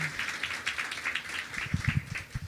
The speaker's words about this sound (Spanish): Eh, feliz aniversario, familia semillosa en Toluca. Denle un aplauso al Señor por su fidelidad con ustedes.